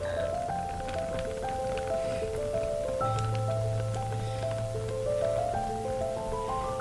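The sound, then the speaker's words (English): The contents of a can pour steadily into a colander with a continuous pattering, rain-like rush lasting several seconds, heard over a soft melodic music bed with no one talking. “And I'm going to pour the contents of this”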